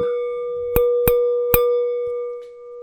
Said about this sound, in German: Na, immerhin klingt das Glas.